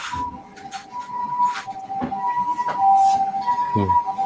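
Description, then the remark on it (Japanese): An ambulance siren wails outside, its high tone holding steady over a few seconds above low, muffled background rumble and clatter. “救急車が。救急車が。音拾っちゃう。”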